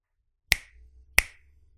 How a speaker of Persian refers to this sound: صدای عجیبی توی سرش پیچید شبیه بشکن زدن بود